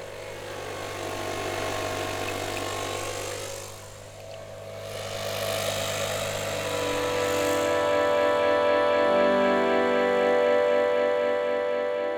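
Steady rumble of motor traffic on Thalia Straße, recorded on 5 September 2019, with engines idling and revving, a continuous mechanical drone that swells midway and stays loud, with rattling engine tones and no talking.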